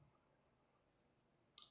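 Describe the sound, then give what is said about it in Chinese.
After a long stretch of near silence, a pen whose refill has run out gives a short, sharp mechanical click as the refill is changed during drawing, followed by a second crisp click right at the end. “笔芯没有了，要换一下。”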